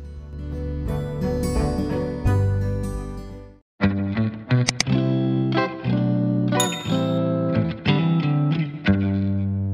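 A pop song plays at steady, full volume, with layered sustained chords and a driving instrumental texture that drops out briefly before resuming. No one speaks over it.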